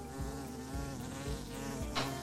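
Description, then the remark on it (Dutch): A bee that has flown indoors, coming for nectar, buzzes steadily, a continuous droning hum that wavers slightly in pitch and loudness as it circles around, with no voices present. “Komt er nou een bij binnen? Oh, die komt op de nectar af.”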